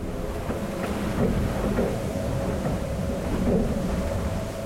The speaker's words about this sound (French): J'ai équipé d'une quinzaine de micros le bateau de Thomas Ruyant pour le Vent des Globes